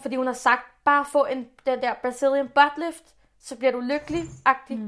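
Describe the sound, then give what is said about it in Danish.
A dog shaking itself off: a short, rattling flap of fur and ears lasting well under a second, squeezed into a pause while a woman keeps talking. “Hov, undskyld, det er min hund, der lige ryster sig der.”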